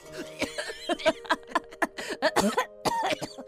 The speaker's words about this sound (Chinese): 外公外婆笑到几乎呛了气，两人猛咳嗽。